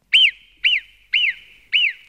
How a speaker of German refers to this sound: Äh, also wenn wir Murmeltiere pfeifen, dann aus einem ganz und gar handfesten Grund. Warnung vor Gefahr.